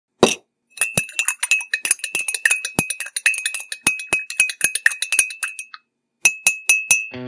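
A spoon clinks quickly and repeatedly against a coffee cup, a rapid run of bright ringing taps that pauses briefly and then resumes for a few more strikes.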